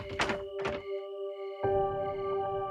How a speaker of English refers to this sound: So I went to the door and I was like, "Who is it?" And it was such a loud knock. Think about how police officers knock.